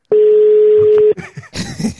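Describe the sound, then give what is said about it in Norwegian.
A single steady phone ringback tone sounds for about a second, loud and clear, then cuts off into a burst of muffled clattering noise. “Nå ringer det.”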